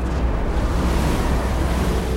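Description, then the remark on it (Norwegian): Heavy ocean waves roar and churn continuously, a loud, rumbling wash of large, foaming waves with wind blowing through it and no distinct breaks or voices. “Andre ganger står han i styrhuset og må lene hodet bakover for å greie å se toppen av de store, skummende bølgene.”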